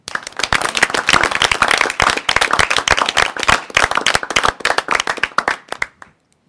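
An audience applauds with dense, steady clapping that holds for about six seconds, then fades quickly into silence. No one speaks over it.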